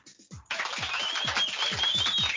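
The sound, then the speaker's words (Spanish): After a brief soft lead-in, a burst of crowd applause breaks out and continues steadily, a dense crackle of many hands clapping at once, fairly loud, with no voices. “El aplausos, producción, por favor, aplausos.”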